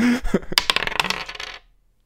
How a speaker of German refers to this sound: Bei 1 bis 3 fange ich mit Florence Foster, Foster Jenkins an, bei äh, 4 bis 6 du mit Deepwater Horizon. Hau rein. Okay, wir würfeln heute alles. Kinder, Glücksspiel ist böse.